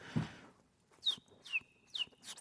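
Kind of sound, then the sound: vocal imitation, person imitating birdsong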